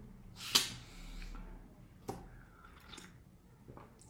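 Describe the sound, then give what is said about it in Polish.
Slurping sips of coffee: a loud airy slurp near the start, then a few softer sips and small mouth sounds, with no talking. “Dobra, będę Wam troszeczkę siorbać kawką.”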